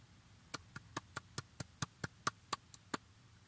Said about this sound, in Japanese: 拍手入ったかな